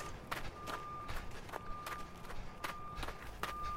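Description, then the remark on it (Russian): Footsteps creak and crunch on frozen snow in a steady walking rhythm, about eight or nine crisp steps at moderate loudness, in thick fog at fifty degrees below zero, with a thin, steady high tone faintly running underneath. “Редкий скрип шагов – да пронзительные гудки машин, и холод, холод.”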